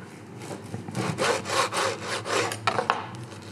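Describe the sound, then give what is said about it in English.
A knife saws through the crisp pastry crust of a Christmas pie filled with chicken and cranberries, in quick, rhythmic back-and-forth strokes, about eight scraping passes, with no one talking. “It's got a star on the top um, and lovely looking pastry, and inside it just cut it open, and we've got a nice mix of chicken.”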